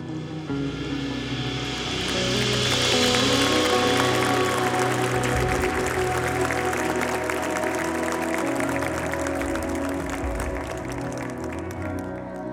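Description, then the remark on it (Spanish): A large crowd claps steadily together after a baptism, a dense wash of applause that swells slightly and keeps going for several seconds, with a low sustained hum underneath. “¿Qué tal si le damos un aplauso, Señor, una vez más?”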